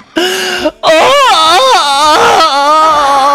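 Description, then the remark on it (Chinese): A baby cries in loud, wavering wails, a short first burst followed by a longer, rising and falling cry with no talking over it. “啊，孩子别哭啊，别哭。”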